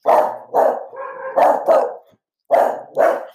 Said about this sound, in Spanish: alerta de perros, alerta de perros, alerta de perros.